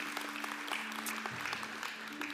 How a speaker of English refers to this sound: Amen? Amen? Amen. Amen. Yeah, we can clap. Amen. Yes.